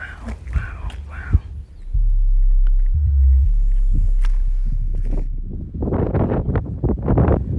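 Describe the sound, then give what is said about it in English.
Strong wind buffets the microphone with a heavy low rumble, howling across a vineyard at Criação Velha, then gives way to loud rushing, surging noise of ocean waves breaking, rising and falling in bursts. “So we're out here right on the edge of the vineyard, and you can really hear the wind, how it's picked up.”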